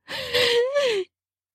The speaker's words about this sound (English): A finger runs across my lips lengthwise, causing me to gasp deeply as I startle.